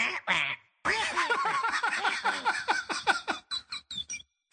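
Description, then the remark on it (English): Someone mimics a parrot, squawking in a rapid, chattering burst of shrill, nasal syllables, loud, after two short opening squawks and a brief pause. “oh, for those who don't speak parrot”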